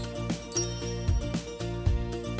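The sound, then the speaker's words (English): Chimes ring out in a steady series of struck tones, each strike layering over the lingering shimmer of the last, moderately loud with no voices. “You will know when to start listening when you hear the chimes ring like this.”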